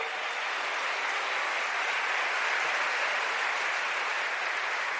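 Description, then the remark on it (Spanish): An audience applauds loudly and steadily, a dense crackle of many hands clapping that holds at an even level for the whole stretch with no voices breaking through. “Ese aplauso fuerte al que vive, aleluya.”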